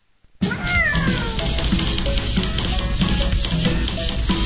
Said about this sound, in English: You hear that? Ain't nothing sadder than an outdoor cat thinks he's an indoor cat.